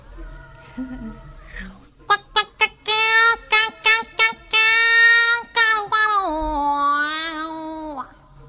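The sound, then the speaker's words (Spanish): A contralto singer's voice imitates an electric guitar, a Telecaster, with a quick run of sharp, stabbing notes followed by a long, bending sustained tone that slides downward, loud with no other talking. “Entonces me di cuenta que explorando otros timbres puedo llegar a hacer algo parecido a una guitarra eléctrica.”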